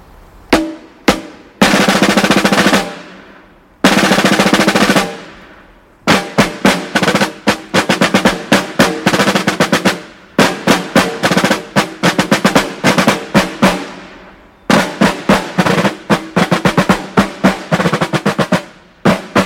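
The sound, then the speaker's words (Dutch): Snare drums played by military drummers (tamboers) of the FKNR in a tight military cadence: sharp rapid strokes, sustained rolls and steady marching rhythms, loud, with no talking. “En een tamboer die bespeelt de trom.”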